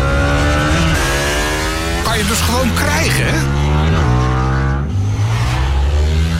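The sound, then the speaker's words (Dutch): The engine of a new Indian FTR Sport motorcycle revs loudly, its pitch rising and falling through throttle blips, with a man speaking briefly over the rumble. “Nieuwe Indian FTR Sport als je daarop rijdt, ja, dan gaat je hart sneller kloppen.”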